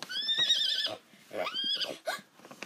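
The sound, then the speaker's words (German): Two loud, shrill pony whinnies, the first long and quavering, the second rising and falling, followed by a short snort, with no talking. “Wir müssen die Ponys füttern. Ich höre sie schon wiehern.”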